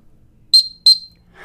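Two short, loud, high-pitched toots from a dog whistle, the standard recall signal to make a dog come back, blown in quick succession with a brief gap between them, followed by a faint rustle.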